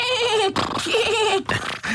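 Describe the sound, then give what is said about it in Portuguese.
A voice imitates a horse screaming after something came out of its hoof: three loud, strained, wavering cries in quick succession, with no other talking. “E o cavalo começa a fazer ah, aos, aos gritos, aos gritos.”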